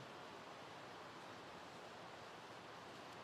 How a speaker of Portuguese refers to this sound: Irmãos, eu amo chuva. Vontade tá de ficar calado escutando a chuva.